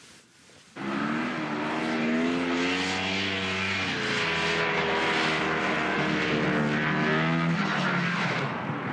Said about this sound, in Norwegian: Snøscootere durer fra kysten av Grønland og utover havisen.